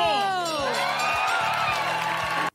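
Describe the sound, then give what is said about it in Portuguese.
A loud crowd cheers and shouts together, many voices whooping and yelling in a dense, sustained roar with sliding high pitches, steady throughout before cutting off abruptly. “Já tinha saudades destes gritos, não estou a brincar, não tinha.”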